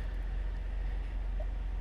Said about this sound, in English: Same situation, windows rolled down, there's trucks running outside. It's a noisy environment.